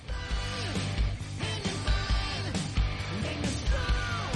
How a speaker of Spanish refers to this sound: Esta es la, versión metálica.